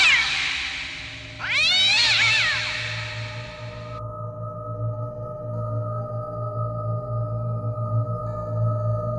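A cat lets out one drawn-out, wavering meow, loud and rising then falling in pitch, followed by a steady low drone with faint sustained tones and no talking.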